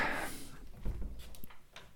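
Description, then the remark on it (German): A cat that has been outside since 4 a.m. rattles at a house door in the morning to be let in, making a few soft, irregular knocks and clicks over a couple of seconds, fairly quiet, with a brief rush of noise at the start and no talking. “Die klappert nämlich schon an der Tür.”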